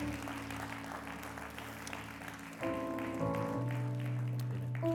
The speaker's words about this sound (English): Come on, can we clap our hands and can we praise our God today?